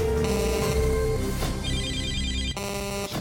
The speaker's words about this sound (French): Vous êtes sur le répondeur d'Africa Radio. Après le bip, c'est à vous.